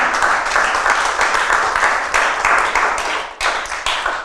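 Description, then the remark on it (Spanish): Sustained applause from an audience clapping for God, dense and steady clapping for about four seconds with a brief dip near the end, no voices heard over it. “Denle un aplauso a Dios, por favor.”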